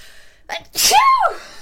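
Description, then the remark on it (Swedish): A single loud sneeze: a quick sharp inhale followed by a forceful burst with a ringing vocal tail, heard on its own without talk. “Prosit.”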